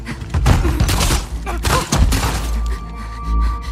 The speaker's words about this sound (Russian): И Джесси, короче, с Элли стоит и продолжает болтать, они слышат выстрел, вбегают в дверь, двери, и сразу пуля в лицо Джесси летит, в щеку.